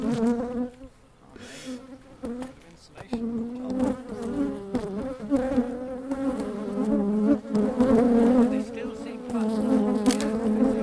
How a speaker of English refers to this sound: So this is um, just before the boys fell when they attacked them. This, this was chaos. the killer bees and Yeah, the killer hornets.